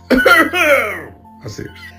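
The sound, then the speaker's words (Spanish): A voice imitates coughing heard from someone in a bathroom after eating: a sharp, forceful cough trailing into a descending throaty sound, then a pair of quieter, shorter coughs after a brief pause. “se escucharon unos, unas tos, tos, se escuchó tos, como una tos.”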